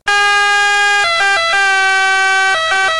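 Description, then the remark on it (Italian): A loud, buzzy ambulance siren holds a steady tone, then steps between two alternating pitches in short hi-lo bursts, demonstrating the Doppler effect with the pitch raised about 3% before passing and lowered 3% after. No one speaks. “Se poi supponiamo che Usain Bolt corra verso l'ambulanza e la superi, avremo un pitch aumentato del 3% prima che ci arrivi e poi diminuito del 3% dopo che se n'è andato.”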